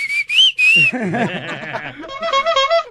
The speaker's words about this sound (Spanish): Un chiflido más y me voy, ¿eh? ¡Otro chiflido! ¡Chifla más! Uno más chiflido y me voy, ahora sí, ¿eh?